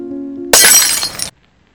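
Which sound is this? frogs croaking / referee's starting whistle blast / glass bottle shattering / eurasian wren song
glass bottle shattering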